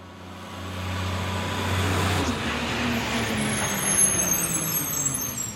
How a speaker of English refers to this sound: The next day, he was woken by a loud roaring sound. A garbage truck had arrived to collect the trash.